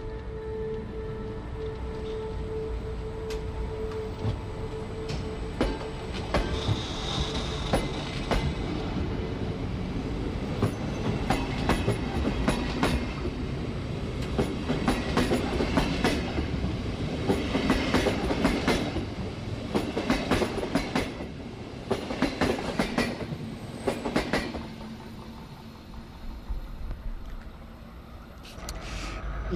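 A train accelerates, with steady rumbling, rhythmic clicks of wheels over rail joints and occasional metallic squeals.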